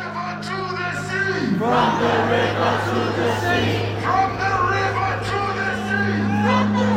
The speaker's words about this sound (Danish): Også herhjemme er fronterne trukket hårdt op. Der er blevet råbt slagord og sagt ting, der nu på statsministerens og justitsministerens opfordring bliver